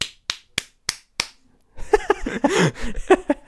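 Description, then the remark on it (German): Five sharp, loud slapping smacks, meant as a man's penis slapping a woman, land in a steady, evenly spaced rhythm, followed after a short pause by bursts of vocal noise that sound like laughter. “Oder er schwenkt seinen Schlong so schnell umher, dass er nicht unbedingt abhebt, sondern einfach der Frau die ganze Zeit Bitch-Slaps damit verteilt.”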